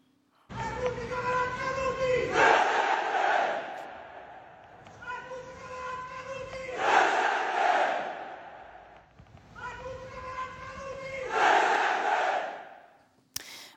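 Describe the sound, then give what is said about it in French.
A crowd of about a thousand people at a fascist rally in the streets of Rome, Italy, chants in unison, roaring the same shouted call three times at steady intervals of about four seconds, with each chant rising to a loud peak before fading. “ce salut fasciste a bel et bien été réalisé dimanche dernier dans les rues de Rome par un millier”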